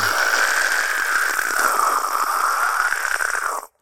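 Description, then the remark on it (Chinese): A voice imitates an electric power tool, the kind of tool sound a lyrebird mimics, with a steady, loud, raspy buzzing drone that holds for nearly four seconds before cutting off abruptly. “或者，或者有那种电动的，”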